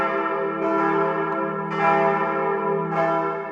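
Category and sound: signal or alarm, church bells ringing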